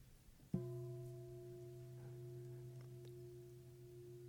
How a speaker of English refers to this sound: And we're waiting and waiting for the bell to ring, close to com- combustion, getting more and more tense. The bell rings.